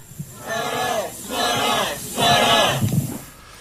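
A small crowd from a civic group at a press conference shouts a slogan in unison demanding an investigation of former chief of staff Kim Ki-choon, three chanted phrases in a steady rhythm, the voices rough and moderately loud with a low murmur underneath.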